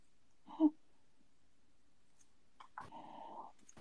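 A dog growls quietly: a short, sharp grumble first, then after a pause a longer, drawn-out rumbling growl. No one talks over it.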